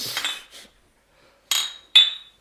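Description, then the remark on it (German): Glasses clink together in a toast: two bright, ringing taps about half a second apart, following a brief clatter of handled glassware. No one speaks. “ja, Prost, ne?”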